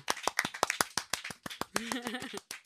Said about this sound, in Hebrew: מבחינה פסיכולוגית זה הכי כיף למחוא אה, כפיים לעצמך.